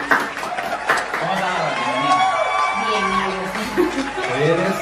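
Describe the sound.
A crowd applauds and cheers steadily for several seconds, with scattered whoops and excited shouting voices rising over the continuous clapping, fairly close and loud.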